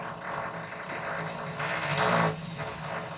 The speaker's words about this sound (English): Yes, it's uh, we're having a bit of drilling done somewhere uh, within the building.